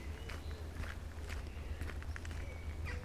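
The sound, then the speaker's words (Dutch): Steady footsteps walking along a park path past a pond lined with copper beeches, in light rain, about two crunchy steps per second, over a low constant rumble with a faint high chirp or two in the background. “En ik loop langs een van de mooie vijverpartijen, omzoomd door rode beuken, door ik denk taxodium, een soort naaldhout is dat, bloeiende kastanje.”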